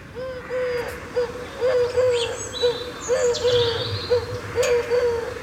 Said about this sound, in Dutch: beige duif met zo'n zwarte ring in de, in de nek